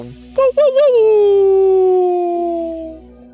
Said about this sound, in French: cris d'ours, euh, de loup et d'ours qui répondent à ce cri-là. C'est de... Ce qui écho dans la nuit.